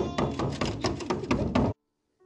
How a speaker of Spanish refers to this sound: Estaba sentada en el suelo cuando la puerta fue abierta por la fuerza.